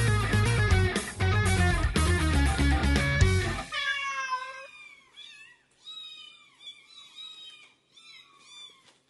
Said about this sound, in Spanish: Miau, miau, miau, miau, miau, miau. Miau, miau, miau, miau, miau, miau, miau.